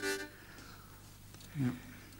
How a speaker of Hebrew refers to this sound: תקשיבו לזה. הוא מנסה להרכיב uh, מפוחית פה.